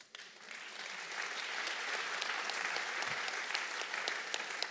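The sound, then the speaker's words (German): A crowd at a bilingual English and German Christian gathering claps for the Lord steadily for several seconds, a dense, sustained wash of applause that swells slightly after the start and stays fairly loud throughout, with no one speaking. “Give the Lord a mighty hand.”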